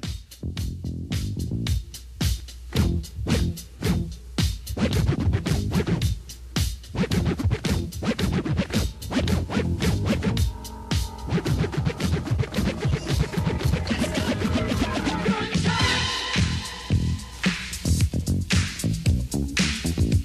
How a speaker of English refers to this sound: that was the first hip hop record where a DJ actually got to take control and, and recorded live, uh, do, mixing his records right there in the studio.